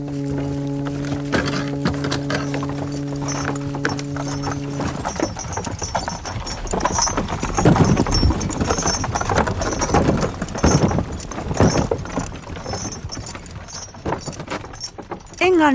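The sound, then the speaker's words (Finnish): Horse hooves clip-clop steadily in a busy street scene, with a low sustained hum fading out early and jingling metal and background bustle around the rhythmic clatter. “Hevoset olivat ahkeraa ja enimmäkseen nöyrääkin työvoimaa, mutta ne söivät liikaa.”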